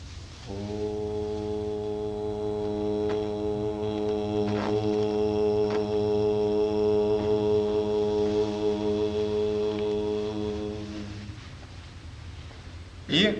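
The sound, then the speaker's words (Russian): A single long syllable chanted during meditation, held as a low, steady drone with rich harmonics, sustained for about ten seconds before fading out, followed by a brief soft sound at the end. “Когда вы произносите слог вы медитируете на звук”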